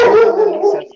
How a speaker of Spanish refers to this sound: permíteme. Este, perdón por los ladridos, tengo aquí.